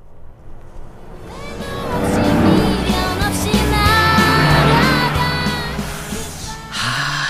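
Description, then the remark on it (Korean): A car passes alongside a slowly driving car, its engine noise swelling over several seconds and easing off, with a song played loudly inside it, thumping bass-heavy music pulsing out and the melody partly buried under the road noise. “옆에 차 지나갑니다. 음악 소리 들릴 거예요.”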